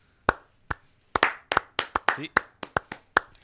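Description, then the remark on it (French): Soft, polite golf clapping: about a dozen light, spaced hand claps from one or two people, starting slow then quickening slightly, with no cheering. “Clap de golf aux Pats.”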